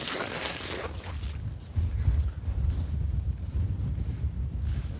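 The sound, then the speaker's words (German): Strong wind whistling across a microphone outdoors at a large listed building built in 1957, a heavy, continuous low rumble and roar that surges louder after a couple of seconds and keeps gusting, with no one speaking. “Ja, hier pfeift es auch ordentlich, aber. Ja, Windschutz ist ein bisschen relativ egal.”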